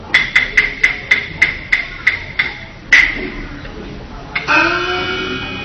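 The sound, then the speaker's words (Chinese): A door is knocked on in a long run of about nine sharp raps that gradually slow down, then one heavier knock. After a pause, a sustained voice begins. “耳听叩门声，相似富婆回。”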